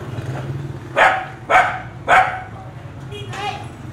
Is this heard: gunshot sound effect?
no